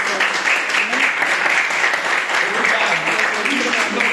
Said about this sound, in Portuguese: Então, irmãos, eu agradeço a oportunidade, agradeço né, que, que o Senhor e as palmas que louvem o Senhor, e que o Senhor nos abençoe.